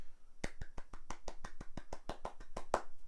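A quick, steady run of about fourteen sharp hand claps, done as an industry clap, evenly spaced and fairly loud, with no one speaking over them.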